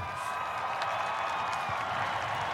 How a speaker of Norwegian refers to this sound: lyd fra folkemengden som overvar Donald Trumps innsettelse som USAs